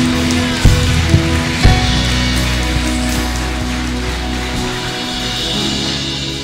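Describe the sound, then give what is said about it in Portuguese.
An audience applauds the Lord during a night service with a dense, steady crackle of many hands clapping for several seconds, over sustained low keyboard tones, with a few louder thumps near the start and no talking. “Aplauda o Senhor teu Deus nessa noite.”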